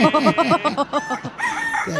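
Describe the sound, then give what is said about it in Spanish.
A rooster crows loudly, opening with a quick run of about ten clipped, rhythmic clucking notes before breaking into a long, strained, high-pitched call. “Piolín peló, gallo.”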